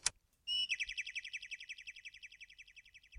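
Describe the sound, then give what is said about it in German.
A sharp click as the Enter key is pressed, then a bright bird chirp that trills rapidly and steadily for about three seconds, clear with no one talking. “Mhm ich habe jetzt auch nur mitbekommen, dass irgendwie es klack gemacht hat und ein Vogel gezogen”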